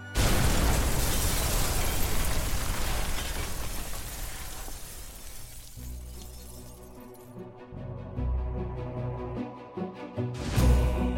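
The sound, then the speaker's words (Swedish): A powerful bomb explosion, set off with fuses inside a house on a dark winter night in Luleå, Sweden, roars out at full force, then slowly fades into a low, rumbling aftermath, with a second loud burst flaring up near the end. No voices are heard. “Bakom dem lyser explosionen upp den mörka vinternatten som ett gigantiskt tomtebloss i ett kolsvart rum.”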